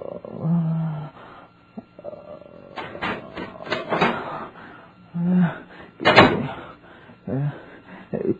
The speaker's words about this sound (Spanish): De pronto, se abrió la puerta de su aposento.